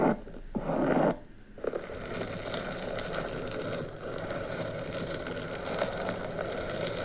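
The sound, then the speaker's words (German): Long fingernails scratch and squeak across a balloon's rubber surface, a dense, grating rasp that keeps going for several seconds, with one brief pause near the start. “Also das, das sind übrigens lange Fingernägel, die an einem oh. Luftballon oh. krass kratzen.”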